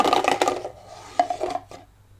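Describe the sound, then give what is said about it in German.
A die is rolled, rattling and tumbling across a tabletop: a burst of quick clicking clatter, then a few scattered hard taps as it settles. No one speaks. “Würfel nochmal.”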